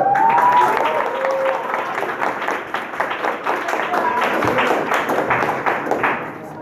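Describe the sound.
An audience applauds steadily for several seconds for a teacher of the school who is in the audience, many hands clapping in a dense, even patter that stays loud throughout, with faint voices mixed in and a slight fade at the end.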